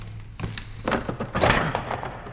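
A wooden chair that a person tied to it has been frantically rocking topples over and breaks apart as they hit the floor, a burst of several sharp thuds and cracking knocks within about two seconds, over a low steady hum.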